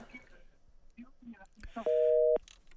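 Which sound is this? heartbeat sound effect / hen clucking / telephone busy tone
telephone busy tone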